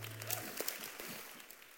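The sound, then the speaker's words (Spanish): An audience applauds a pianist in a steady, dense patter of many hands clapping at once, fairly soft overall, with a low hum briefly underneath at the start and no speech. “Un fuerte aplauso a nuestro pianista.”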